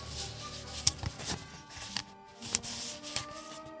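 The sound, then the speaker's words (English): Crinkling and several sharp plastic clicks as a lid is worked off a coffee cup, with soft handling rustles between the snaps and no voices. “We're just taking the lid off.”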